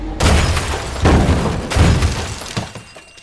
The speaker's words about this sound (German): Der schwarze Mannschaftsbus des BVB biegt in die Wittbrolker Straße. Nur wenige Sekunden später explodieren drei Sprengsätze.